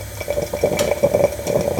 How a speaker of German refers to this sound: diese kleine italienische, die typische, ne, die man so auf dem Gasherd dann ähm, erhitzt und dann blubbert das so schön